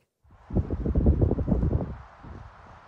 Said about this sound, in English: Chase those leaves. Yeah, those leaves are blowing. I've got to get them.